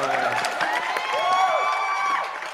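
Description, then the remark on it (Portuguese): A crowd cheers and whoops over scattered clapping, many voices rising and falling together in a steady, lively burst that fades slightly at the end. “Nossa, aplausos. linda, linda. Toma aplausos, então.”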